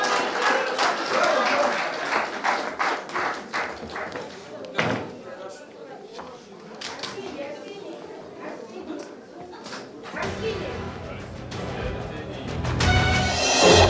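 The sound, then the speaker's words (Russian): A crowd applauds steadily, a dense wash of many hands clapping that swells near the start, dips slightly in the middle, then grows fuller and louder toward the end. “Аплодисменты.”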